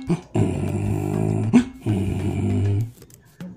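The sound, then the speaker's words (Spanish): A voice imitates the bray of a little donkey in a told story, answering a rooster's morning crow, in two long, rough, buzzing calls, each about a second, separated by a brief pause, loud and alone with no other talking. “Cuando el gallo cantaba, el burrito contestaba.”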